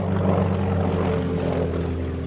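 A steady, loud propeller engine of a Breguet prototype airplane, weighing just over one tonne with a 16-metre wingspan, drones with a strong low hum and harmonic buzz as it climbs to 2000 metres, holding constant throughout with no voices.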